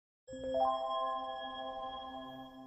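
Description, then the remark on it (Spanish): A bright electronic alert chime from a dating app rings out on its own when someone within a 10-metre radius likes the user: a few quick rising tones blending into one sustained, shimmering note that lingers for a couple of seconds, fairly loud. “Y si hay alguien que gusta de ti, suena la alarmita como...”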